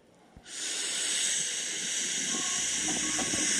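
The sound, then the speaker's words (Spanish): A single long, breathy hissing exhale, like someone voicing a drawn-out H sound, begins abruptly and holds steadily for about three seconds, fairly loud, with no talking. “Ese es el único sonido que se puede hacer con la H.”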